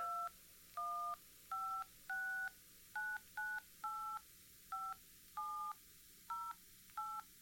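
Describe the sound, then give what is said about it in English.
A telephone number is dialed: a quick series of about eleven clear DTMF beeps in an uneven rhythm, each a short two-tone chirp, distinct over a faint low hum with no talking. “Pass me the phone.”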